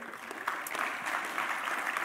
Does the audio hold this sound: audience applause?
yes